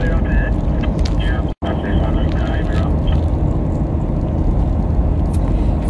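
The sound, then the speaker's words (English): A heavy road train truck rumbles steadily in the background, a loud, continuous low engine and road roar that fills the whole stretch, broken only by a brief cut near the start. “So sorry, there's some movement in the road train, so we're just hearing that in the background.”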